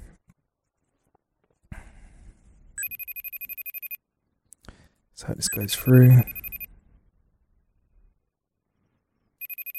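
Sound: faceTime call ringing tone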